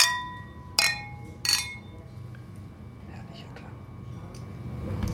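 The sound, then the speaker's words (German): Glasses clink together in a toast among men, two bright, ringing taps about a second apart, followed by quiet murmuring and low background noise. “Okay, und meine Herren, Prost.”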